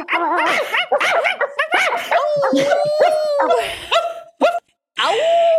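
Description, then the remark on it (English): A dog barks in a rapid string of sharp yips and barks, then lets out a longer whining howl, a brief pause, and another drawn-out whine. “Bark. I don't trust that. Bark, bark, bark.”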